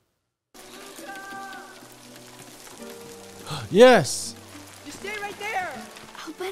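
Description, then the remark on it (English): Steady, soft hiss of rain falling throughout, with a sharp gasp and excited voices talking over it near the middle. “Oh no, it's raining.”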